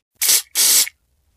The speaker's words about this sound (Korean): 휑한 곳이 없는 걸 확인하고 스프레이를 뿌려 고정시켰다.